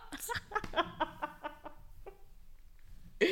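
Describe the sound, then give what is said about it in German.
Birds call in a quick series of short, sharp chirps that cluster together, then trail off into sparse faint ones, with one more burst at the end. No one speaks. “Dass das äh, schön ist, wenn die im Hintergrund zwitschern.”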